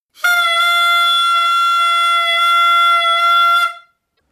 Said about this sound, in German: Ich übertöne nur das Klingeln in meinen Ohren, das Ihre dumme Tröte verursacht hat. Meinen Sie diese hier?